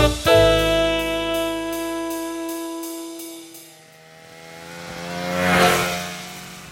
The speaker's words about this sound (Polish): Simon Sinek w swojej książce Liderzy jedzą na końcu użył takiej bardzo zgrabnej metafory ze skuterem śnieżnym w tle i stąd ten taki e, hałas e, na początku dzisiejszej audycji, który przed chwilą usłyszeliście.